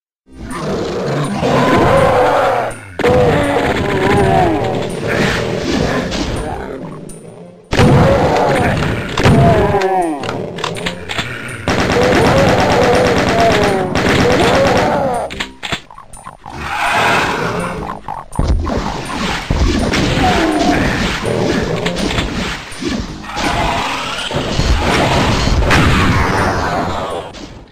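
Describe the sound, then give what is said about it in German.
Loud, dense bursts of retro shooter game effects: gunfire, blasts, thuds and growling monster roars tumbling over one another, with brief silent gaps between chaotic stretches. “was wir vorspielen können, ist tatsächlich die Soundatmosphäre und wir können uns mal ein Bild davon machen, wie das klang damals, wenn man Doom gespielt hat”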